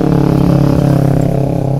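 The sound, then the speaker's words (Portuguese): A small motorbike with a poor engine drones loudly and steadily, a raspy, buzzing two-stroke tone with a faint rhythmic putter, sustained throughout with no voices. “Alto pra caramba, parece uma mobilete Monarch, né?”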